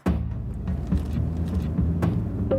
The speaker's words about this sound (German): Es geht los. Der erste Tiertransporter fährt vorbei.